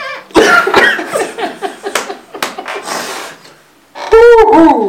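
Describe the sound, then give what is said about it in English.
A run of loud coughs, starting with two sharp bursts and trailing into rougher, breathy hacking, followed by a brief pause and a strained, throaty vocal sound. “Don't you have to cough right now?”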